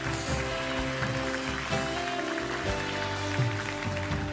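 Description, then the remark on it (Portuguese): A church audience claps steadily in a dense, continuous wash of applause for the people who made a decision of faith, with soft sustained music playing underneath throughout. “Será que podemos dar um aplauso a todas as pessoas?”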